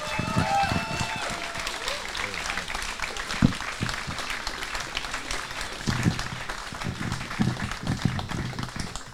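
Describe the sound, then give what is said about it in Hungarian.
An audience applauds a guest, a musician, steadily: a dense wash of many hands clapping at an even loudness for several seconds, with a few scattered louder claps and faint crowd noise mixed in. “Nagy tapsot szeretnék kérni.”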